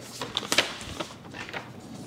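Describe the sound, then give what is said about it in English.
Rustling of paper sheets, a signed investor term sheet, being handled and turned while being shown to someone, a few crisp crinkly bursts over about two seconds, fairly quiet with no voices. “I'm just going to get this piece of paper to show you.”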